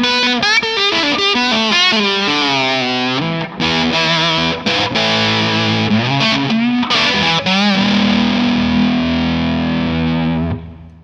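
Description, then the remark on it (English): A distorted electric guitar plays a bluesy lead with wide, gliding string bends that swoop up and down in pitch like a slide, loud and sustained, with no talking over it. “First of all, like the very last thing you did, I you you bent the strings in exactly the way that the sort of the interval and the tuning that a slide would get.”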